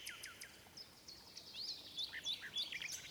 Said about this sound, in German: Der halbe Hof begleitete das Mädchen in den Wald, wo die Nachtigall zu singen pflegte. Da begann die Nachtigall zu singen.